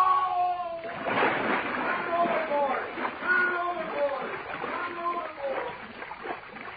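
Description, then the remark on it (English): A heavy splash as a man falls overboard into water, then continuous sloshing and churning as he thrashes about, with a frantic voice shouting for help over the noise. “Help! I fell in. Help me!”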